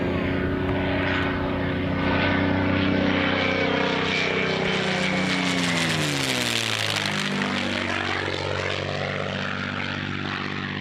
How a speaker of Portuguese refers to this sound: Tem nos Estados Unidos tem algumas pessoas que são, algumas não, várias pessoas que são donas, né? São proprietárias desse P51 Mustang, que tem motor Rolls-Royce. Veja você.